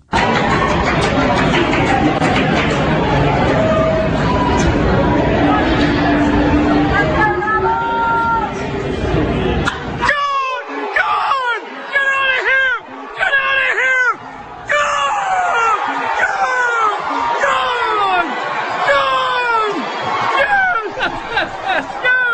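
Southern Miss baseball fans, a crowd of about 4,500, cheer in a stadium after a three-run home run in the eighth inning: a dense, loud crowd roar for about ten seconds, then excited individual shouts and screams rise and fall over the continuing din.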